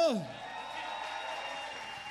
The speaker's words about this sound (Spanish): Estamos muy contentos de estar aquí esta noche eh, siendo parte de estos los festejos del 80 aniversario de Radio UNAM, para el cual pedimos un aplauso.